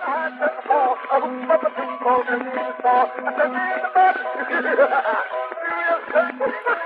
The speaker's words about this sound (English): Ooh, here we go. Turkey in the straw.